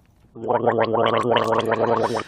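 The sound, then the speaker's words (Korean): A continuous gargle of mouthwash in the throat, a steady bubbling rattle lasting about two seconds after a brief quiet start, then cutting off. “가글 소리입니다.”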